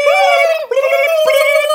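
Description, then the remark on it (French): A voice imitates a turkey gobble with a loud, high, nasal warbling cry held for almost two seconds, broken by one brief catch partway through. “nous on est des dindes. Oui, nous on fait,”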